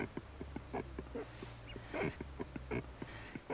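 Great cormorants calling at a busy colony: deep, guttural croaks and grunts over a low droning undertone, with rapid rhythmic clicking pulses and several birds overlapping.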